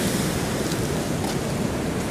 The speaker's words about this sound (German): Das also sind immer richtig hohe Wellen. Also ich kann die Surfer schon verstehen, warum die da Spaß dran haben.